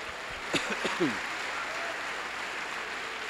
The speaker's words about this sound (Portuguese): vai lá, vamos dar um aplauso aí.